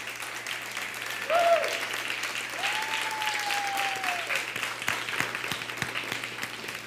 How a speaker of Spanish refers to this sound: Es fiesta. Un fuerte aplauso.